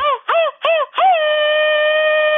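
A Mexican grito shout: three quick yelping bursts followed by one long, steady held cry at a middling pitch. It's a rather thin, restrained grito, heard alone without other talk.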